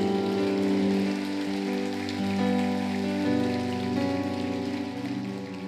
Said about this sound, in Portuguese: Pode aplaudir Jesus.